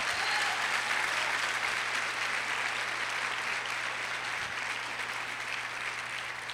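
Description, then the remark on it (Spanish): Sustained audience applause given to God the Father, a dense crackle of many hands clapping at steady loudness throughout, easing slightly toward the end, with a faint low hum underneath and no voices. “Dele un aplauso al Padre.”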